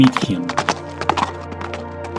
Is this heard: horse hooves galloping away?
yes